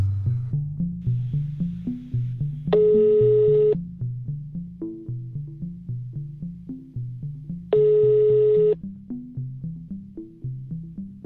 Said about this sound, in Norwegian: Roger Valhammer tok ikke telefonen.